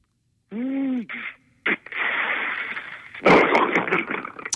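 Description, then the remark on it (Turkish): A person mimics the automatic door of a municipal city bus with their voice: a rising, warbling tone, then a sharp burst and a long, loud hissing whoosh like air being released, ending in a harsher blast. “Belediye otobüsünün otomatik kapı sesi”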